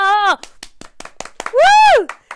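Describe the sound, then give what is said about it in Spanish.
Scattered, uneven hand claps snap along for a couple of seconds to celebrate the start of season three, framed by two loud, drawn-out cheering whoops that rise and fall in pitch. “El día de hoy comenzamos la temporada número 3. ¡Un aplauso!”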